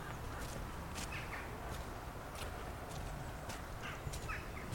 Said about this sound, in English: There's a raven over the valley somewhere.